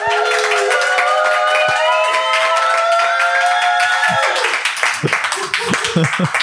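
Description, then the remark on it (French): A crowd at the Zénith de Metz bursts into loud, sustained applause mixed with cheering and whoops for the editorial director of Urban Comics at an evening on independent comics, then it thins out into scattered claps and voices near the end. “qui est directeur éditorial d'Urban Comics et que je vous demanderai d'applaudir bien fort tous autant que vous êtes s'il vous plaît.”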